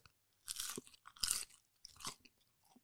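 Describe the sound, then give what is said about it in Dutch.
A golden-brown crispy snack is bitten into with a loud crunch, followed by several more crackly chewing crunches in a loose rhythm, then a faint final one. No talking. “Nou, dit is plenty krokant.”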